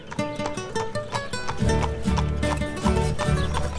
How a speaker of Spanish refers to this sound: Mientras aquella campesina contaba su dinero, el abogado se fue muy contento en su nuevo caballo. Lo llevaba al trote y parecía un animal manso, como le había dicho la mujer.